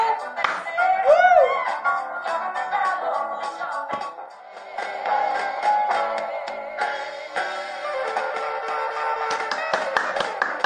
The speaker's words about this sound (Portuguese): Uma salva de palmas para ….